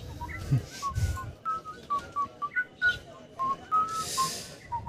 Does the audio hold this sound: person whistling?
yes